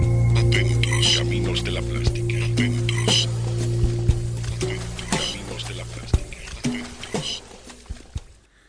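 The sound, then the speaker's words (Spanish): Watery drips and splashy pops scattered over a short musical jingle with sustained low tones, clear, with breathy vocal murmurs woven into the mix; the water sound is part of the intro jingle of the programme Ojos Atentos. “No era consciente que la presentación, el pique que, escuchábamos recién de los ojos atentos, tenía ese sonido agua”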